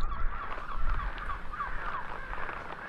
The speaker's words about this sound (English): Wait! Listen. That sound. What is it? The birds. They're crowding against the outside of the house. They're trying to find a way in.